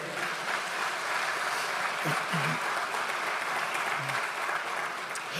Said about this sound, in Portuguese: Só quem recebe, diga amém, dê um aplauso bem forte ao Senhor.